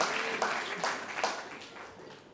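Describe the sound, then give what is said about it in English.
An audience applauds with steady, dense clapping that fades gradually over a couple of seconds, a broad crackling wash of many hands with a few sharper bursts. “I know, I know you clap, but that, that's that's.”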